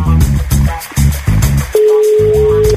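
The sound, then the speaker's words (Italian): A single steady telephone ringback tone of an outgoing call to a grandmother, about a second long and clearly audible, sounding over a loud, thumping rhythmic music track that plays throughout. “Stiamo chiamando una nonna, quindi per favore rispetto assoluto.”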